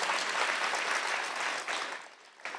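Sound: audience applause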